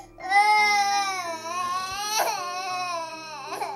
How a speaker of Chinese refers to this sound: 想要每次猜中…的心思，可是一项挺有意思的挑战，因为他只会哇哇哇的哭。